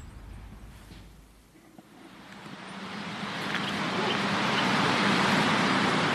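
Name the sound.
street traffic noise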